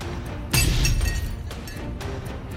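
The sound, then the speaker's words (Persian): A loud crash of breaking glass panes and shattering vases in a studio bursts out, followed by a few smaller tinkling clatters as shards settle. No one speaks. “زده هرچی شیشه تمیز کرده بودیم شکسته گلدونا رو هم خورد کرده”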